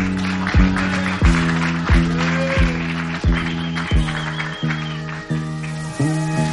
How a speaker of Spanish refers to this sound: Ya. Un poquito de calor para el MC. Venga, un aplauso.